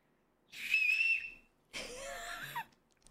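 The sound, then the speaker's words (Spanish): Two fairly loud whistle bursts from a person whistling, separated by a short pause: the first a steady high tone, the second breathier and wavering in pitch before stopping. No one speaks. “pero sí, sé silbar. Él sabe silbar, eso está bien.”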